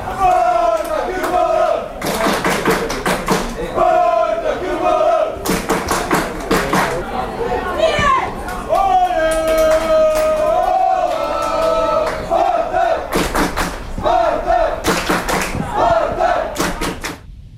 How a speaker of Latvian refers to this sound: Jā, nu tālāk dzirdējām, kā Jūrmālas Spartaka līdzstāja grupa atbalstīja komandu Daugavas stadionā